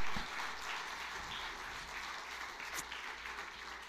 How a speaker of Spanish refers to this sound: Pues denle un aplauso a Dios por su misericordia y su bondad.